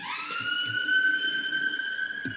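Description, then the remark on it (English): A fire truck siren wails steadily, its high, harmonic-rich tone sliding slightly upward and then holding loud and sustained throughout, with no voices over it. “They the, the fire truck has to come to put out the fire.”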